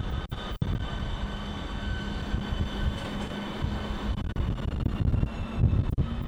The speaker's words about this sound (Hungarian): És most éppen meg is érkezett mellénk egy S33-as viszonylatjelzésű motorvonat, három részes régió Panther. Négyes pályaszámú motorvonat meg is érkezett.